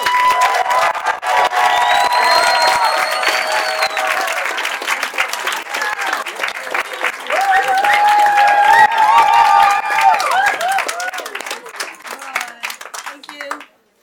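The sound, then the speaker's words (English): A crowd applauds loudly with dense, sustained clapping and scattered cheers and whoops, filling the space for over ten seconds before cutting off abruptly. “And uh, give a wonderful applause”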